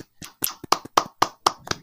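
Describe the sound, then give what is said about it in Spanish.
A short burst of hand clapping, about eight sharp, evenly spaced claps at a brisk, steady rhythm, moderately loud, with no voices. “no le dimos un aplauso a nuestro amigo de Anime Store”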